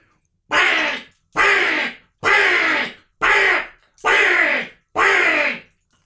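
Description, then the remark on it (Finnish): Six harsh, raspy crow caws blown on a bird-call instrument, evenly spaced in a steady rhythm, loud with short silences between and no talking. “Sitten ihana varis.”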